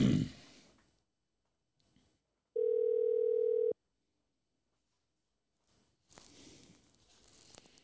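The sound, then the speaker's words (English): A loud, steady telephone dial tone hums for about a second as a call is placed, then cuts off abruptly, with quiet gaps and some rustling handling noise before and after it. “So Let's get him on the phone.”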